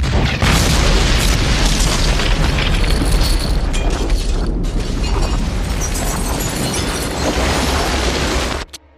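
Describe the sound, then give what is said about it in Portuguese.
A tank shell explodes against a building next to a hideout, loud, with a deep booming roar and crashing debris that rumbles on for several seconds before cutting off abruptly. No one speaks. “Um tiro de um tanque acertou em cheio o prédio ao lado do esconderijo onde estavam.”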